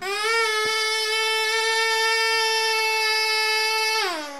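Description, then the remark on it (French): A tiny organ built only from paper and cardboard, working like a real one with a mini bellows, sounds one long, steady, reedy note, bright and buzzy with rich overtones, held for about four seconds before it sags and slides down in pitch as it fades. “Rien que du papier et du carton, pour construire ce tout petit orgue qui fonctionne comme un vrai, avec une mini soufflerie.”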